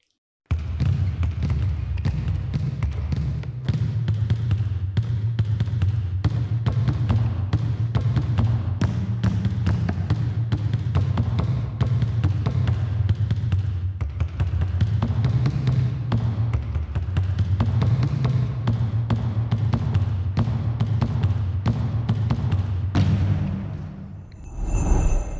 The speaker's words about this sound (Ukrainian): Кожен з них має у кожній руці по одному м'ячі, і ці виконання щедрика на 10 рук і на 10 баскетбольних м'ячів. Запис триває 30 секунд, але кожна Секунда, варто того, щоб її послухати.